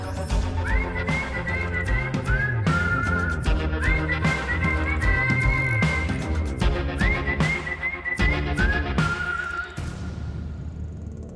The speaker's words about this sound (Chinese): 这是你自己吹的口哨吗？ 对 哦，是真的是啊。